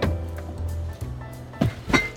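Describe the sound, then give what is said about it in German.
A car door handle is yanked twice in quick succession, two short, solid clunks with the latch not giving, over a steady low engine rumble from inside the car. “Jetzt kriegt er die Tür nicht auf.”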